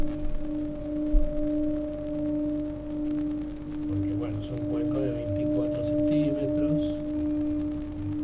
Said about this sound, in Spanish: Decinos si suena el, el gong, el cuenco.